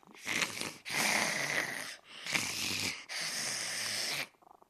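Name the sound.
cat purring loudly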